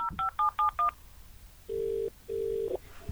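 Five quick electronic keypad beeps from a phone being dialed, followed by two long, steady ringing tones on the line, heard clearly with no voices.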